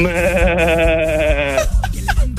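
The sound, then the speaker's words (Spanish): A goat lets out one long, loud, wavering bleat lasting over a second before cutting off abruptly, followed by a few faint scattered noises. “¿Esto qué fue? cabra, ¿qué fue? Amarren, amarren la cabra, amárrenla.”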